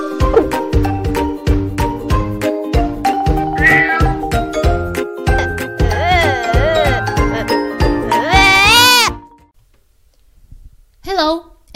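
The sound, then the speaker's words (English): Several cat meows rise and fall over a bouncy, rhythmic musical jingle, growing louder near the end; after a short silence, one more brief meow sounds on its own. “Uh, cats meowing.”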